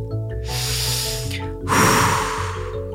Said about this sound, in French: Eh oui, en inspirant profondément par le nez et en soufflant par la bouche, on rejette le gaz carbonique de nos poumons et ça, ça diminue l'acidité de notre sang.